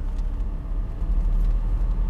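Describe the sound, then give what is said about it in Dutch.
A car drives steadily over the top of a sea dike to the other side on a very windy day, its deep engine and tyre rumble filling the whole stretch at a constant, fairly loud level, with no voices present. “En we rijden over de dijk naar de andere kant.”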